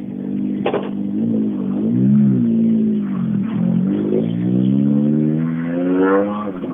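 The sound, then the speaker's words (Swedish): A rally car engine without an exhaust system revs loudly and raggedly during the Östgöta Rally, its harsh pitch rising and falling through several throttle blips before climbing steadily at the end. No one speaks. “Om du lyssnar här så har vi inget avgassystem kvar.”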